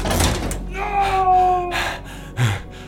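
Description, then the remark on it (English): An elevator door grinds along with a metallic whine, then slams shut with a single heavy thud near the end, fairly loud. “And watched the elevator door slam shut”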